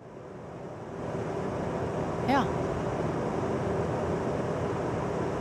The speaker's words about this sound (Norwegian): Nei, det er for å få ungene- for å få ungene til å sove. Så har man sånn white noise. Sånn her.